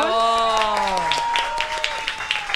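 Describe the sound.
An audience applauds with a patter of scattered hand claps that grows steadier, while a held, slowly falling voiced tone rings at the start before fading under the clapping.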